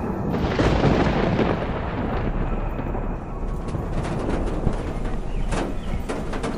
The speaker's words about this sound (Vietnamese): Tiếng sét nổ giữa màn trời đêm